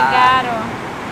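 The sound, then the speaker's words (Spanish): Heavy rain drums steadily on the zinc metal roof of an apartment, a dense, hard hiss, with a brief voice sounding over it at the start. “So sorry guys, es que el techo del cuarto, o sea, del apartamento es como que zinc. So suena duro. Metal, so suena cuando cae la nieve.”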